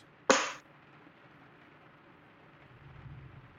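distant thunder rumble

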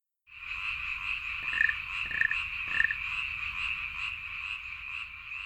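frogs croaking

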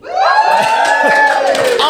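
crowd cheering

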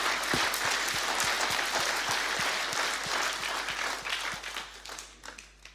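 audience clapping

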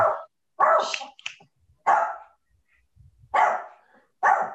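puppy barking

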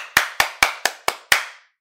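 hand clapping

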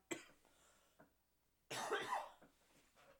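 cough

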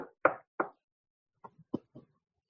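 knocking on wood

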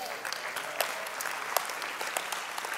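audience applause

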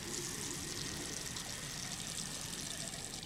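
running water

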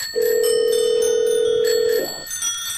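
telephone call ringing through

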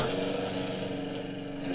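lawn mower running outside

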